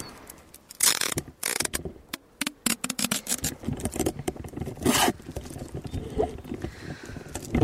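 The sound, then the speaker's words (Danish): Adhesive tape is ripped off a roll in several sharp, noisy bursts, with rustling and handling sounds between pulls, fairly loud, no one talking; the tape is being used to fasten a dictaphone in place. “Jeg bliver simpelthen nødt til at tape den her diktafon fast.”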